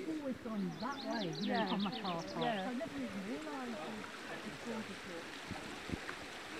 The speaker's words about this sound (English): a little river down here which you might have to cross